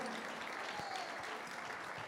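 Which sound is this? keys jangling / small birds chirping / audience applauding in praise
audience applauding in praise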